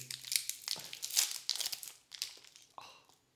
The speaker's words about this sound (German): Ähm, die Verpackung um das Knoppers rum. Oh. Die will ich loswerden, weil ich habe so Bock auf das Knoppers. Das liegt hier die ganze Zeit vor mir. Ich mache das mal kurz.